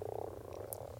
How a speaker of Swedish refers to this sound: Ja, för det första så måste vi säga att det är vanlig groda som sjunger här, och det är ju ett fantastiskt ljud i våren